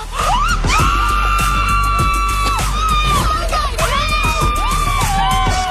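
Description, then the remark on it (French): Several women scream and cheer loudly and continuously, their high-pitched shrieks rising and falling over a noisy, excited crowd, with a few sharp bangs mixed in. “Ah, ça crie”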